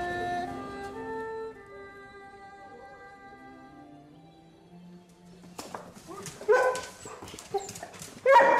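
Weimaraner dogs whine in long, high, wavering tones for several seconds, then break into a cluster of sharp, loud barks, with a few overlapping yips toward the end.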